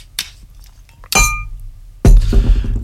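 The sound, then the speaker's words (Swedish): A glass clinks sharply with a brief ringing tone, then a steady splashing pour of Explorer Vodka into the glass follows for a strong grogg, fairly loud, with no voices. “Häller vi upp här. Stadig grogg.”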